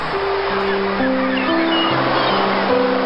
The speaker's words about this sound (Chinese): 突然，海浪扑到沙滩上。